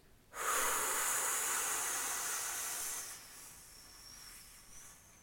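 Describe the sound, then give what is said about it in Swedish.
A long, loud, airy breath drawn in for about two and a half seconds, followed by a softer, steady exhale trailing off at the end, demonstrating breathing in first and then out. “Andas du ut och du håller på, om jag tar ett eh, in först och sen ut”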